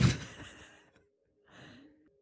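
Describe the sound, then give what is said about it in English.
A voice mimics a sleeping man's breath: a loud, airy puff of air pushed out through the mouth, then after a short pause a softer, slightly voiced second exhale, with no talking. “He's breathing, but he breathes out through his mouth, and he makes this little.”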